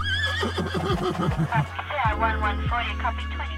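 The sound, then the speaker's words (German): A police horse whinnies loudly, a long shaky neigh rising and falling over about three seconds, with low steady background noise underneath. “Denn Hunde und Pferde gehören auch dazu.”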